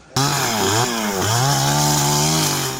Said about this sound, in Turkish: Testere sesleri duyanı üzdü.